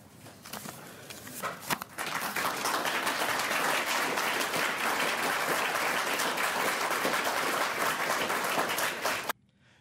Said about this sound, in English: Yeah, and obviously you can see she gets a round of applause. She deserves mm-hmm. this.